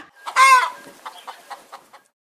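A chicken kept in a bag lets out a loud squawk followed by a series of short, evenly spaced clucks that trail off, clear with no one speaking.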